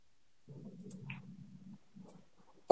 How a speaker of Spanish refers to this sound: ¿Por qué está sonando el teclado? en primer lugar. ¿Está sonando el teclado? Claro que sí. Es el mouse. Estoy escuchando un mouse. Bueno, un mouse o un teclado, chamo, un ratón o una tecla.